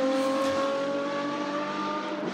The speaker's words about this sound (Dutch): We hebben nog wat... Eh, is die Porsche 917, hè?